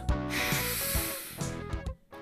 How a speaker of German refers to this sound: Tief durchatmen.